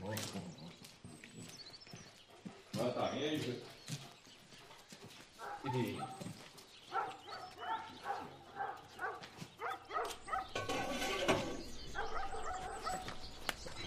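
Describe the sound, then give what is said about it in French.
A dog barks and yelps in repeated short bursts, with voices talking and some clattering noises mixed in around it. “Pousse-toi, le chien”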